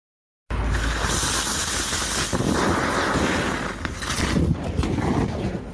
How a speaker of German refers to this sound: So hört es sich an, wenn ein Lithium-Ionen-Akku in Brand gerät. Zum Beispiel, weil er durchbohrt oder zusammengepresst wurde. Dabei sprühen die Funken wie bei einem Feuerwerk.